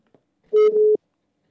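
A single short telephone tone as a radio station, Raadio Elmar, phones a listener who is a contest finalist: a steady, mid-pitched electronic beep lasting about half a second, fairly loud, with silence before and after and no voices.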